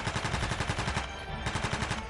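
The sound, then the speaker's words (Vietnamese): Heavy machine gun fire in a continuous rapid burst, dense repeating shots at a steady rhythm, loud, with no voices; a wounded soldier firing at advancing enemy troops in battle. “mà quân địch thì vẫn cứ nổ súng tiến lên cho nên ảnh mới trường người lên khẩu đại liên ảnh bóp cò”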